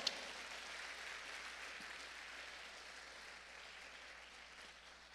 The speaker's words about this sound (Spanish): Dele palmas al Rey de la Gloria, pues, con fuerza al Señor.